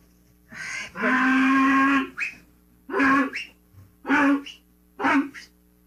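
A mule brays loudly, one long drawn-out call followed by three shorter, rhythmic bursts with brief pauses between them.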